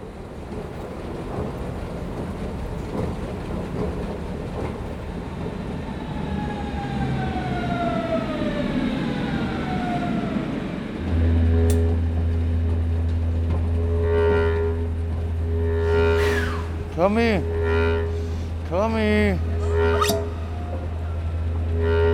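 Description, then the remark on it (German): Ambience at Anhalter Bahnhof in Berlin, an underground S-Bahn station: a train's descending electric whine slides downward, then a loud steady low rumble sets in, with rising and falling motor tones swooping over it near the end. No one speaks. “Wir sind am Anhalter Bahnhof in Berlin, eine unterirdische S-Bahn-Station.”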